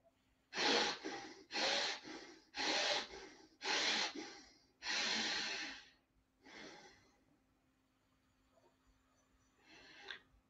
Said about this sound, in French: Maintenant, fermez les yeux et poursuivons une respiration lente et profonde et ressentez le bénéfice de ces cycles de respiration que nous venons d'effectuer ensemble. Respirez profondément et lentement.